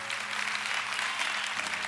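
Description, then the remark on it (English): An audience applauds the Lord steadily, a dense, continuous wash of many hands clapping at an even loudness for the whole stretch, with a low hum underneath. “And if you give faithfully and God's blessed you, would you say amen or applaud the Lord?”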